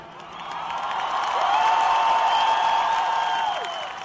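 A large crowd at Grand Park in Chicago cheers and applauds loudly after Obama speaks, with sustained roaring, clapping and high whoops swelling to a steady peak and holding for several seconds.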